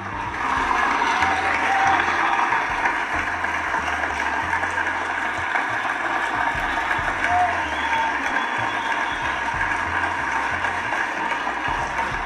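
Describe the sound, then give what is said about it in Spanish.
A large audience applauds steadily for over ten seconds, a dense, continuous patter of many hands clapping, with some murmuring voices mixed in. “Otro aplauso para ustedes, por favor.”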